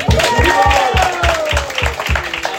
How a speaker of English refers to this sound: I think we should all give a massive round of applause to her.